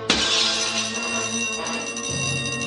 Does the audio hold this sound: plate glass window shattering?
yes